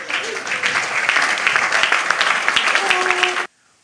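Loud, dense applause from a crowd, a steady roar of many hands clapping for about three and a half seconds before cutting off abruptly into silence.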